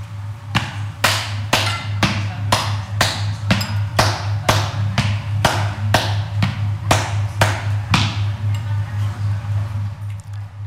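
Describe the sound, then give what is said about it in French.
A steady series of sharp taps, about two per second, keeping a waltz-like three-beat rhythm, given as an example of three-beat meter as found in the waltz. A constant low hum sits underneath and no one speaks. “J'ai parlé aussi des mesures à, trois temps, et euh, notamment on retrouve ça dans la valse.”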